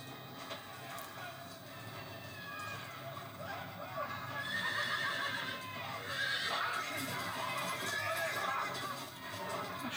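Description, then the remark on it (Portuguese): A horse whinnies loudly several times, high shrill neighs rising and falling over a busy background with faint hoof clatter and murmuring voices. “Ó, oh, perdeu o cavalo, olha.”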